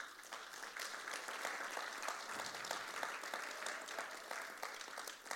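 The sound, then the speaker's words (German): Steady applause from a church crowd for the church's kids' team, dense rapid clapping that holds at an even level for several seconds without letting up, with no clear voices over it. “Applaus für unser Kids-Team, das ist verrückt.”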